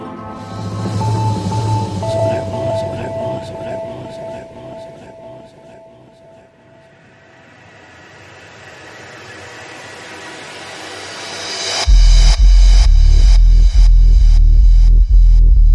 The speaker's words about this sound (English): This beautiful track in the background. It's absolutely brand new